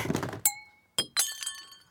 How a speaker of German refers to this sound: Och Mann, jetzt ist mir auch noch ein Glas runtergefallen. Mist.